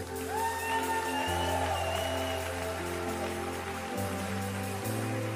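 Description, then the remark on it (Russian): A crowd claps steadily throughout, a dense wash of applause mixed with sustained keyboard or organ chords playing underneath, loud and continuous without any pauses. “Дай ему огромные аплодисменты.”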